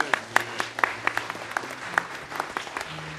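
An audience at a morning church service applauds a man steadily, with many overlapping hand claps forming a dense, even patter of moderate loudness and a faint low hum beneath it.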